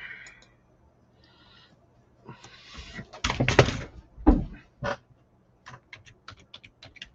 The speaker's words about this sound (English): That sounded like a catastrophe. Yeah, that was a cat being moved. So it was a catapult? Yep.